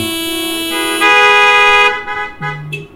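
Loud car horns blare in long, sustained honks, first a higher blast that swells and holds, then a shorter, lower-pitched honk after a brief break. No one speaks.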